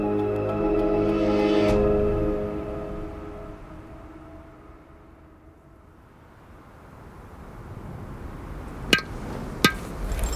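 A low, droning wind-like hum swells and fades, then two sharp metallic hammer strikes ring out near the end, spaced under a second apart, as the Sherpa Dava Norbu hammers an anchor piton into a steep rock face high on Nanda Devi.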